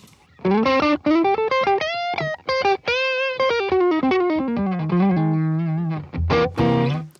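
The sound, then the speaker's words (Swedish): Overdriven electric guitar played through a Tube Screamer overdrive pedal, playing a melodic lead line, with singing sustained notes that bend and slide, moving from higher notes down to lower ones, with a gritty, saturated tone and no talking. “Men som sagt, låter även jättebra här, eh, om, man, om man då skulle ta och, eh, och eh, slänga på typ en Tube Screamer på den.”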